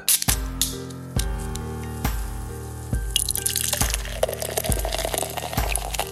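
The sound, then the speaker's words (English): Bulldog Amber Ale from Half Pints Brewing Company pours into a glass with a rising fizzy splash, joined partway through by a bright foaming hiss, while steady, evenly spaced musical notes play underneath. “You hear that sound and you know that I'm pouring a beer.”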